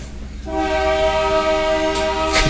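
A passing train rumbles low as its horn blares in, a loud, steady multi-tone chord that holds for about two seconds without a break. No one speaks.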